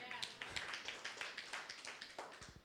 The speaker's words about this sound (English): Thanks for clapping. Praise God. I got a clap, but that was awesome.